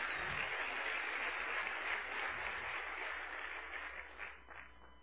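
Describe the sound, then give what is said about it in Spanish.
Sustained audience applause for an audience member, a dense crackle of many hands clapping at once, steady and fairly loud before thinning slightly toward the end with a few distinct claps standing out. “Ok, siéntate, por favor, y un aplauso.”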